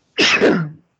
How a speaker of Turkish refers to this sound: çok yaşa.